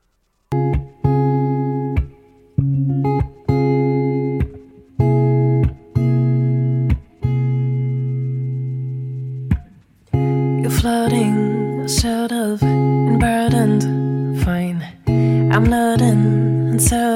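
An acoustic R&B soul song opens with mellow sustained chords in a gentle stop-start rhythm, then a soulful sung vocal comes in partway through over the accompaniment, close and fairly loud.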